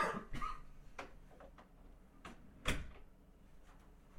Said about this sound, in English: Because I gotta shut this door.